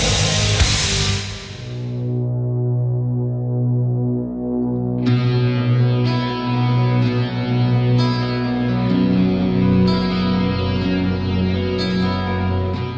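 A heavy death metal passage of thick, distorted guitars droning in a low register, with sharp accents punching in every second or two. The playing is loud, dense and steady, with no vocals.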